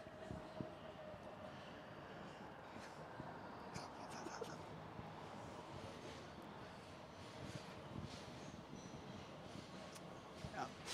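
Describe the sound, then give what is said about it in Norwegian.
A dense, steady roar of a metro train rushing past while someone tries to sleep, loud, with rumbling low end and hissing high noise sustained throughout. “Vi tenkte jo ikke på at T-banen kom til å rase forbi Emil.”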